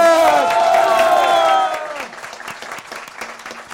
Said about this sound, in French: tonnerre d'applaudissements aussi pour toute l'équipe en Actu